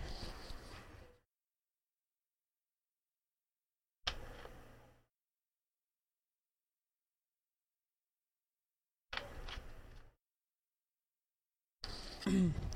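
drinking water

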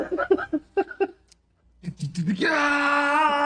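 cat crying

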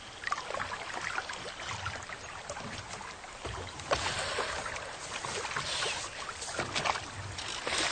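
rowboat moving through water

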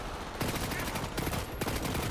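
video game gunfire

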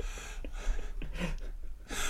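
dog snoring

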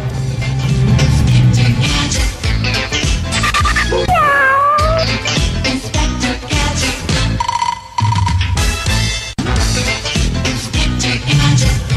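cat meowing

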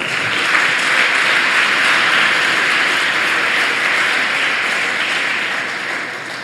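audience applauding

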